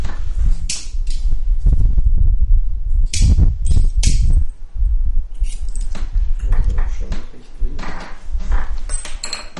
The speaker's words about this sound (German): Und Premiere, mein Feuerzeug geht nämlich wieder. Jetzt, wo ich ein anderes habe.